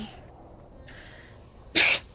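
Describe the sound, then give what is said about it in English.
A faint breathy intake, then one sharp, loud sneeze bursts out near the end, short and explosive, with no talking around it. “oh, bless you.”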